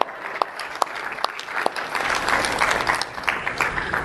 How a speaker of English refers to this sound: It's a miracle. Big round of applause for miracles.